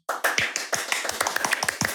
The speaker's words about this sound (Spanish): Pero bueno, retomando, vamos a recibir con un muy fuerte aplauso a nuestra invitada de hoy.